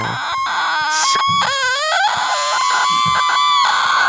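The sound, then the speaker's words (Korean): On a radio show, someone imitates a boiling, whistling kettle with a shrill, wavering, high-pitched squeal, rising and falling in several loud bursts over a few seconds. “주전자 소리 원래 잘 내요. 한번 내보세요.”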